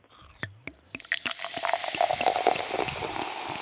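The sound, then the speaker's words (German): A few splashy drips lead into a steady pour of a drink into a glass, the bubbling, gurgling stream growing fuller and slightly rising in pitch as the glass fills; no voices. “Da wird ein Getränk eingegossen.”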